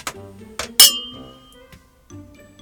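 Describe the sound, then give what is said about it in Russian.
A few sharp glass clinks in quick succession as a drink is poured into a glass, each leaving a brief bright ringing tone that fades, with no one talking. “А, просто наливать надо не полный бокал.”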